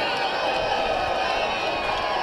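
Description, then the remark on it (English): A large stadium crowd of UAB fans in Murfreesboro roars and cheers after UAB beat Middle Tennessee 27-25 in the Conference USA Championship game, a steady, dense wash of noise with clapping and shouts blending into a continuous loud celebration. “Quite a party going on down there right now.”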